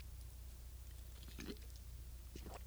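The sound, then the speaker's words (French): Quiet sips of Tim Martins coffee: two brief slurping draws about a second apart, soft and wet, over a faint steady background hum with no talking. “Gorgée de café Tim Martins.”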